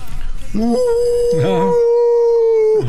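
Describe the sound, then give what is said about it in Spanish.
A person imitates a dog's howl: one long, loud howl that slides upward, then holds a steady pitch for a couple of seconds before breaking off. “estoy aullando, eh. pero de recuerdos.”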